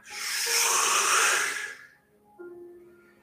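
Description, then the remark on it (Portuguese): A long, deep exhale during a guided breathing exercise, after a deep breath in through the nose, rushes out as a broad, airy hiss for about a second and a half, swelling then fading, followed by a soft low hum or tone. “Solta o ar como se fossem ondas.”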